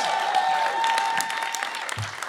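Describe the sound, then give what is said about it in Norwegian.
Steady live audience applause at the Mannsbånd Live show at Studentforum in Trondheim, a dense wash of many hands clapping at a constant level, with no one speaking over it and a brief low thump near the end. “Ta en applaus for det.”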